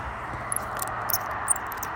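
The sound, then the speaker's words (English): A small shiny metal bison tube geocache container is handled out in the snow, giving a few faint, sharp high clicks and squeaks against a steady background hiss, with no one talking. “That is the sound of a shiny bison.”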